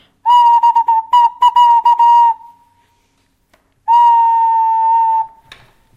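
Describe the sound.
A toy whistle, one of a collection in which each whistle makes a different animal's sound, plays a loud, fairly high note, first in a series of fluttering, broken chirps, then after a pause as one long steady tone. No talking.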